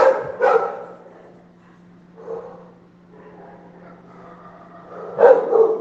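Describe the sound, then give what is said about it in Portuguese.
Dogs at a home kennel bark in short bursts, a pair of sharp barks at the start, a softer one midway, and a loud cluster near the end, over a steady low hum. “É isso que dá ter um canil em casa, parabéns.”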